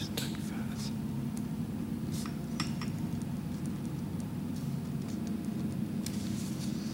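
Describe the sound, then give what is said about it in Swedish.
Soft scratching and light scribbling strokes of a pen writing in a guest book, over a steady low hum; faint clicks and taps punctuate the writing sounds. “Det låter som du skriver mycket.”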